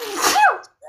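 A single sharp sneeze bursts out with a breathy rush and a quick voiced tail, then cuts to silence before a brief murmur at the end.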